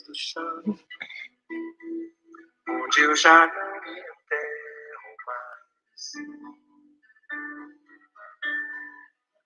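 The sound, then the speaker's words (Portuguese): A song plays back quietly, a sung vocal line with soft accompaniment coming through in short melodic phrases, sounding slightly thin as if from a small speaker. “Conseguiu colocar a música dele?”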